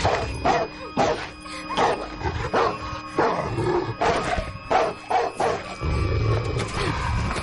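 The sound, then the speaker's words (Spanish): A leashed dog barks over and over in quick, aggressive bursts as it goes for a girl, loud, with a steady tonal hum underneath and a low rumble building near the end. “El perro no llega a tocar a la chica.”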